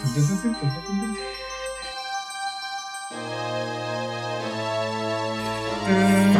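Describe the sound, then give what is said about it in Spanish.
A video game music theme plays on its own, with sustained synth tones, a low bass note, and twinkling chime-like flourishes at the start and swelling again at the end. “Y suena ese tema culiado.”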